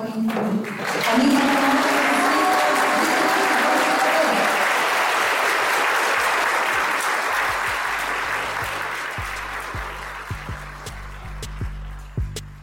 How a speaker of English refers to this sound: It was such a celebratory moment. Families sat behind them, just beaming, clapping. It was such a nice celebration for these students as they set off into high school.